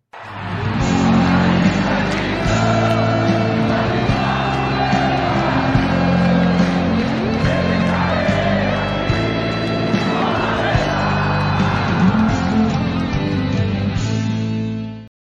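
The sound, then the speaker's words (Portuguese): A loud, dense burst of music, the show's jingle (vinheta) played during a pre-game broadcast, lasts about fifteen seconds, with steady low bass tones and busy layered sounds that resemble crowd cheering and shouts. “Vamos soltar a vinheta e na volta vou chamar o Saulo para compor aqui a bancada comigo.”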